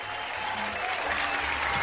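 An audience claps steadily throughout to welcome a guest, a dense, even patter of many hands at a fairly loud level, with no voices rising above it.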